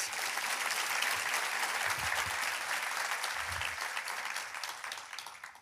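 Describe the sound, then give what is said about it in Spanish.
An audience claps steadily for several seconds, a dense, even patter of many hands that holds strong and then begins to thin out toward the end, with no voices. “¿Qué tal si le damos un aplauso a ellos?”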